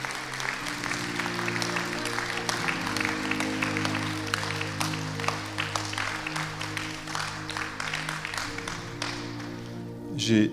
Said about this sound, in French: Applaudissons le Seigneur, parce que c'est cela qu'il fait en vérité.